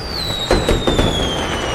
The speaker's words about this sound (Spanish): Estos fuegos artificiales digitales son para vos.